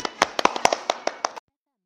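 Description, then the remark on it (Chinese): A short burst of applause welcoming a story-session mentor to explain a story: a dozen or so sharp, bright claps in a loose, uneven rhythm, lasting under a second and a half before stopping abruptly into silence. “为我们解析这段小故事，掌声有请。”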